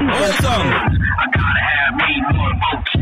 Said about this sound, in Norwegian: Det er telefonen min som ringer, jeg er veldig usikker på hvem det er, da.